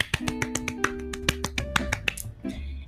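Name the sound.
hand clapping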